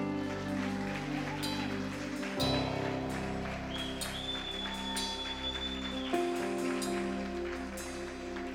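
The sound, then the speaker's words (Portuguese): An audience applauds Jesus in a steady, dense patter of clapping that carries through the whole stretch, mixed with sustained organ-like music chords that shift a couple of times. “Aplauda Jesus.”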